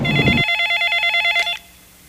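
A telephone rings with a bright, warbling electronic trill lasting about a second, fairly loud, after a brief low rumble at the start; it then cuts off to near silence.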